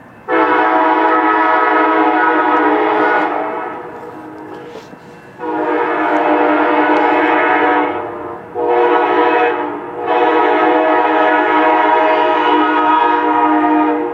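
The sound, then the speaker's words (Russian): A train horn blares in long, loud, sustained blasts, three extended honks with short breaks between them, as the train passes through a city, with a steady rumble of the passing train underneath and no talking. “поэтому он дает сигнал о том,”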